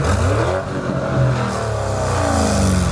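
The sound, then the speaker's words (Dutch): The V8 engine of a Porsche Cayenne Coupé GTS revs hard through a sport exhaust, a loud, deep burbling roar with rising and falling pitch sweeps, steady and continuous for the whole stretch with no voices. “Ja, nee, V8 en eh, met sportuitlaat.”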